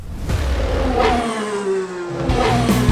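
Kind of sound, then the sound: vehicle, car engines revving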